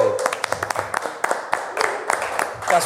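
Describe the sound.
Scattered applause from a small group, sharp claps arriving irregularly, while voices keep talking underneath for the whole stretch.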